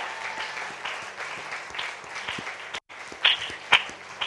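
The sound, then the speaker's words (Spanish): An audience applauds an upcoming Ofsted inspection to open a nursery, clapping steadily in a dense, crackling wash of applause, which drops out for a split second and then resumes with a few sharper, louder claps standing out. “Eso merece un aplauso y una oración.”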